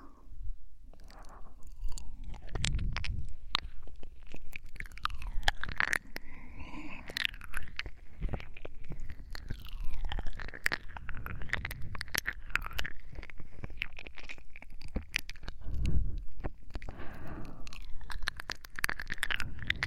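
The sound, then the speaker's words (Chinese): Continuous wet ear-licking mouth sounds in an ASMR style, with dense clicky smacks and licking noises that keep a steady, busy rhythm throughout, moderately loud with no talking. “想要舔舔小狗狗的耳朵罢了。”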